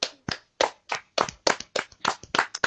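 Someone claps alone at a brisk, steady pace, about a dozen sharp, bright hand claps in a row with no voices over them.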